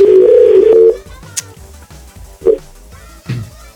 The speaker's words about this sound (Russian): Мне надо набрать номер. Сейчас. А. Блин, у меня это... Сегодня телефон какой-то. Самое сложное в этой программе, это набирать эти номера. Пальцы уже в диск не